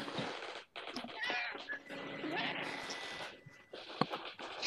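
A cat meows a few times, its drawn-out, wavering cries clear against faint background noise.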